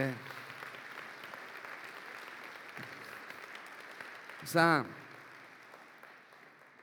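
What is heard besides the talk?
audience applause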